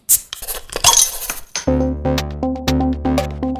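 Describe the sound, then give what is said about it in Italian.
A short intro jingle: a burst of glassy clinks and rattles opens it, then a punchy electronic tune takes over with sustained bass notes and bright staccato accents, loud. “Ma come di consueto, prima sigla e poi partiamo.”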